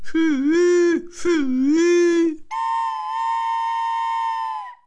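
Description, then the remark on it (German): A voice imitates a locomotive whistle with two wailing, rising-and-falling hoots, then a long, steady, high whistle tone that holds for a couple of seconds, loud. “Und wie er das sagt, kommt schon die Lokomotive daher und pfeift.”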